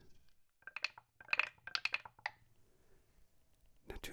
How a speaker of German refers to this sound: Dann werden die Würfel in der Hand gedreht. Der ein oder andere hat vielleicht auch noch ein Ritual. Puh, puh, werden die Würfel gewürfelt.